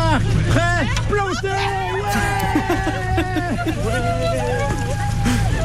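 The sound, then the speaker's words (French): Busy work-site ambience at a tree planting, with people running with wheelbarrows through mud to plant tree saplings: many voices talk and call out over each other with bursts of laughter, above a steady low rumble that runs throughout. “j'aimerais vous faire euh, entendre un extrait de l'ambiance qu'on peut trouver dans ce genre de moment.”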